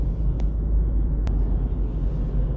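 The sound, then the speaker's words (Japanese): Strong wind roars steadily outdoors by a river on a fine spring day, 11 degrees outside, as a continuous low, buffeting rumble, with a couple of brief sharp clicks along the way and no voices. “えー、風が強い、えー、外の気温は11度、お時刻は11時34分、えー、時刻は11時34分、えー、風の音が、えー、すごくします。”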